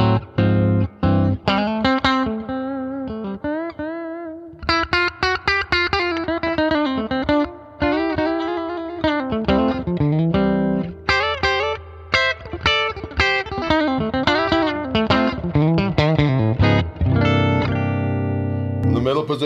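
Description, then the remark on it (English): An electric guitar with a velvety, glassy, quacky neck-pickup tone plays melodic phrases with bent and sustained notes, steady and fairly loud, ending on a held chord. No one talks. “velvety glass neck pickup garbage pickup. I want. I refer to it as quack.”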